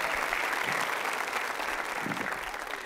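An audience applauds: a dense, steady patter of many hands clapping that stays loud and even for about three seconds, with no clear break in the sound.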